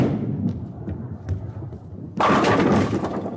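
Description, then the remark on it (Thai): A bowling ball rumbles low down the lane for about two seconds, then crashes into the pins in a loud, bright clatter that rattles on to the end: a strike. “Oh, that's the sound of someone's bowling. And that's a strike.”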